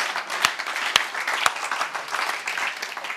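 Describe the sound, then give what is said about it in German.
Steady crowd applause given as a round of applause for Jesus, a dense patter of many hands clapping, with a few sharper individual claps standing out near the start, sustained at moderate loudness with no voices. “Hey, komm, lass uns Jesus nochmal einen Applaus geben.”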